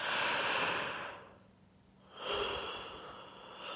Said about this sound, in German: Wer musste jetzt mitgähnen? Also, das heißt, die Superübung, um dich ganz schnell in diesen Wohlfühlfaktor zu bringen, in dieses Wohlgefühl, ist das Gähnen. Jawohl, ganz groß zu gähnen.